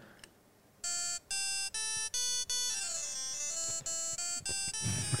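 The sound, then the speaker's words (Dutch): An electronic conference badge, made of a small circuit board with a little screen in the middle and a four-way push button, plays a tinny, buzzy melody of piano-like tones, first several separate notes, then a quicker run that steps down and back up in pitch, with no talking. “het, het is een mini piano-achtig ding.”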